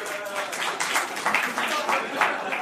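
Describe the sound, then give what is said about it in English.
An audience gathered to watch the film Taken 2 breaks into steady applause when asked who has seen it, a dense patter of many hands clapping together, with some crowd voices mixed in, holding at a fairly even level for a few seconds. “How many people here have seen Taken 2? Applause.”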